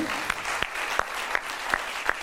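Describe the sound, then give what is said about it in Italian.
An audience claps steadily, a dense wash of many hands with a few sharper claps standing out at regular intervals, sustained for a couple of seconds; applause in tribute to actor Alan Rickman. “Vorrei chiedervi un applauso a Alan Rickman che non c'è più”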